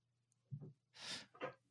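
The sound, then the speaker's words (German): A dog vomiting: a low gulping thud followed by two harsh, breathy bursts in quick succession, moderately loud, with no talking. “Okay, mein Hund hat jetzt gekotzt.”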